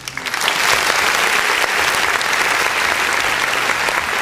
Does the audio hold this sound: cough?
no